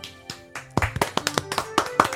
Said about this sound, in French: Nous sommes le 20 décembre 2023 et c'est la dernière de l'année. On applaudit.